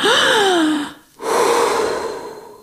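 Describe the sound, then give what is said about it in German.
A deep, audible breath drawn in, a brief pause, then a long, slow exhale, fairly loud with no talking. “Also wir atmen jetzt einmal tief durch”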